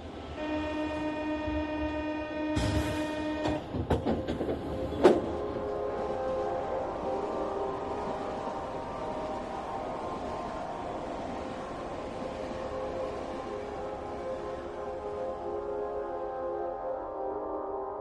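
An RER commuter train at a station: a sustained horn-like tone and a burst of metallic clanks early on, then a steady rolling rumble with a high whine that carries on throughout.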